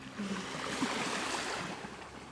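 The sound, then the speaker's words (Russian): A steady, broad wash of waves splashing, with a faint low motor hum underneath as a motorboat passes; no one speaks. “Смотри, даже волны зашумели.”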